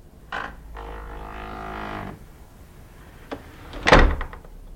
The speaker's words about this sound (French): Et voici cette fameuse porte du château de Puttenden à Linkfield, dans le Surrey. Cette porte qui s'ouvre souvent sans raisons apparentes.